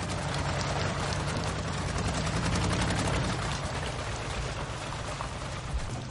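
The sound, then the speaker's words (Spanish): Steady, gentle rain falls without a break in the daytime under a cloudy sky, a dense, even patter with fine crackling detail, heard alone with no voices for the whole stretch. “De día el cielo está nublado y llueve suavemente.”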